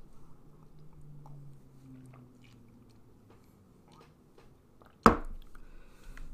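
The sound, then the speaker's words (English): Quiet slurping and swallowing sounds of someone taking a drink of water to cleanse the palate, followed by a single sharp knock like a bottle being set down, with no talking. “I'm gonna, I'm gonna take a drink of water real quick and try to cleanse the palate.”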